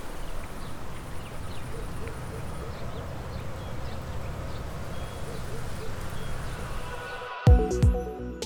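A steady morning park ambience, the park not very busy, with faint birds chirping over a low, continuous wash of background noise, soft, indistinct background voices and a dog barking, ending with a brief louder rustle.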